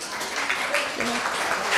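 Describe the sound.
An audience at an evening event applauds steadily for a couple of seconds as the evening's speaker is called onto the stage, a dense, even wash of many hands clapping, with faint voices mixed into the crowd noise.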